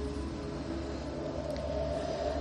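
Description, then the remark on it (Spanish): Trains rumble along railway tracks in a steady, continuous low roar, with faint metallic tones and a broad wash of mechanical noise; no one speaks. “Escuchas los trenes en las vías”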